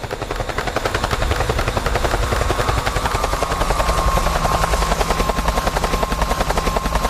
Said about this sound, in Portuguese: Olha o helicóptero chegando